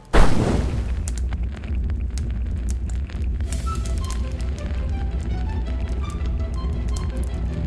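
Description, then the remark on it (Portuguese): A fireball sound effect: a sudden loud whoosh-boom bursts out, then a steady roaring rumble of flames carries on with scattered crackles and faint sputtering tones until the end. “Eu ia fazer uma bola de fogo, mas já tem uma aí, não precisa mais.”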